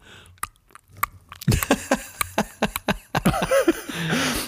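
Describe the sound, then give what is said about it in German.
Wet tongue smacking and sucking clicks, a quick irregular series of about a dozen sharp smacks as the tongue works food loose from a back molar, with some squeaky sucking near the end. “Oder auch bei mir besonders beliebt mit der Zunge aus dem, aus dem Backenzahn so ein Schmatzgeräusch, irgendwie so, als würde man was rausholen, weißt du?”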